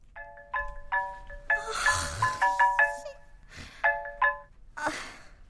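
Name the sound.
phone ringing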